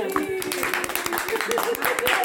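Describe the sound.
Quick, steady hand clapping with many sharp claps in a row, kept up throughout, with a voice sounding faintly underneath.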